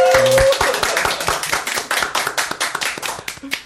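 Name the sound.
small audience clapping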